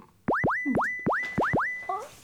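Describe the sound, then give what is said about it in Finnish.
A synthesizer's Tom sound, its oscillator shaped by an envelope, repeatedly swoops upward in pitch and settles, about six quick rising chirps in a row, loud, like a boingy electronic sweep, with no talking. “öö, siis, en, enveloppi. Niin, enveloppi.”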